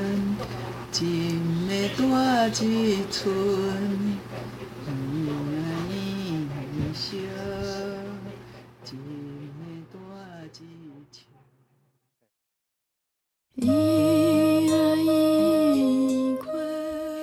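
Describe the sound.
A woman, the rapper's mother, sings a gentle Taiwanese-language lullaby melody over a sustained backing, gradually quieting to a brief silence before a loud, dense section of a 2014 rap song by a Taiwanese rapper, a duet with his mother, bursts back in.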